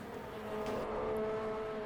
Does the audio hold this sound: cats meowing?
no